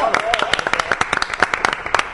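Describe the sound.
A small group applauds a newly joined guest on a programme, a dense patter of sharp hand claps, with faint voices mixed in underneath.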